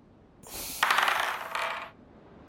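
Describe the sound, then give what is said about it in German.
A die is rolled for a Perception check and comes up 21. It clatters and rattles across a hard surface for about a second and a half, then comes to rest, followed by a single sharp click. Fairly loud, with no talking. “Oh nice, ich bin nicht gewohnt, so gut zu würfeln.”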